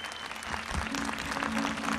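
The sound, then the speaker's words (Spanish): An audience at the end of a Mass applauds for the Virgin Mary, Virgen de Luján: a dense, continuous patter of many hands clapping at an even loudness throughout, with no voices standing out. “Fuerte el aplauso para María, fuerte, fuerte, fuerte.”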